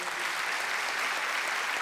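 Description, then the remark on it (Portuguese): An audience applauds for some people at a church service: dense, steady clapping blends into a continuous crackling wash that holds an even, moderately loud level without pause, with no voices over it. “Você pode dar uma salva de palmas para essas pessoas?”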